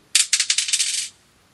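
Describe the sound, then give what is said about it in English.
A quick burst of a die rattling and clattering as it is rolled, the second of five dice, a rapid run of bright clicks lasting about a second, fairly loud, then stopping abruptly into silence. “Dice number two.”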